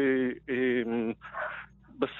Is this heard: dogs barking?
yes